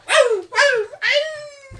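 A dog gives three loud barks in quick succession. Each is high-pitched and drops in tone, and the last one is drawn out into a longer, whining note.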